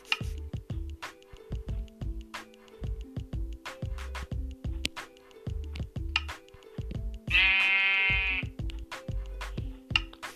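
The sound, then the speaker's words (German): A single wavering sheep bleat rises clearly for about a second, set against a steady, repetitive backing of plucked bass notes and sharp clicking percussion; no one speaks. “da ist ein Schaf, geil.”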